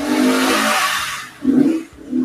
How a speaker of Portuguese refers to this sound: além de moto velocidade aqui que está acontecendo perto de casa